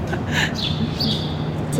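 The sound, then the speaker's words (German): Sparrows chirp in short repeated bursts over a loud, constant city roar and a low steady hum, the calls partly swamped by the background noise. “Die Spatzen, die man da hört, die haben einen besonders grossen Kehlkopf, weil es so laut ist.”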